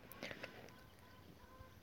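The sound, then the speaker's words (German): A few short, faint clucking calls from chickens in the background, clustered near the start over a quiet outdoor background, with a small sharp sound at the end. “die Hühner im Hintergrund stimmen mir zu, vielleicht kannst du die gerade auch hören.”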